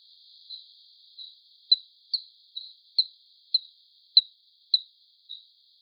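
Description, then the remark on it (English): Bat vocalizations from the highest frequency bands, pitch-adjusted down into the audible range: about ten short, chirping clicks at a steady pace of roughly two per second. Each one starts sharply and fades quickly, with silence between them. “Or these bats who occupy the highest frequency bands and whose vocalizations have been pitch adjusted here to fall within our hearing range.”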